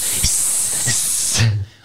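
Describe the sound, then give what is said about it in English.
A person makes a sustained, breathy hiss for well over a second, a steady sibilant noise imitating a hissing sound, ending abruptly. “It wasn't just booing; it was hissing. Hiss.”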